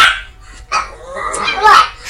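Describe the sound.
Dogs bark in a quick, uneven series of sharp, high yapping barks, several overlapping bursts in about two seconds, with a faint voice underneath.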